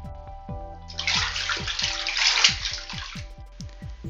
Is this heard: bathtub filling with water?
yes